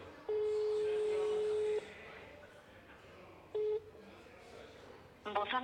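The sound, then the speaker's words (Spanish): Telephone tones of a call being placed over faint background noise: a long steady electronic beep, a short matching beep a couple of seconds later, then a brief buzzy burst at the end. “Vamos a hacer una llamada, ¿eh?”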